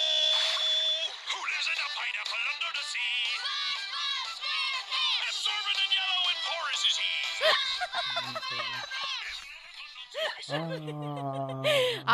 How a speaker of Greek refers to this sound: Αυτό είναι ο ήχος ξυπνητηριού μου.